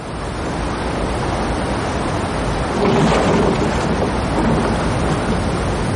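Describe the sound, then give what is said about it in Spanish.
A waterfall's roar fills the whole clip: a loud, steady, hissing rush of water that swells slightly halfway through, with no voices and no breaks. “Atraca la canoa en la orilla cerca de las cataratas.”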